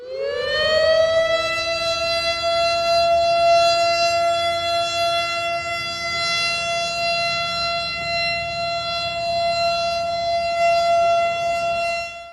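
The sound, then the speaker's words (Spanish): A nuclear attack warning siren wails in a long, steady tone that rises at the start and holds its pitch, harmonic-rich and loud throughout, with no voices present. “Advertencia de ataque nuclear.”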